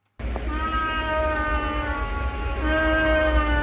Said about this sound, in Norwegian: Herre er søtt. Her er søtt. Ja. Kos dere med her. lyden av babyoter som ligger og sover.